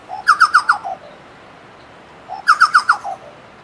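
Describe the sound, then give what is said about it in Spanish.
A chucao tapaculo, a small blackish bird with brown stripes living hidden in forest undergrowth in Chile, calls twice, each burst a quick run of four or five loud, clear, descending chuckling notes, separated by a pause of about a second and a half, with no talking. “Finalizaremos nuestro programa hablando de un pajarillo que muy pocos han tenido la suerte de verlo en el bosque, aunque se le escucha a menudo, el chucau, Chucao.”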